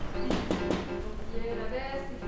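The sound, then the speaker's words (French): Three quick, evenly spaced knocks on the door of a large 1960s-style house, fairly sharp, followed by a faint murmur of voices in the background. “Toc toc toc”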